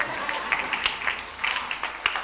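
Scattered audience applause, a steady wash of many hands clapping with a few sharper individual claps standing out, moderately loud and continuous throughout.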